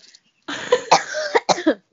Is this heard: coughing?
yes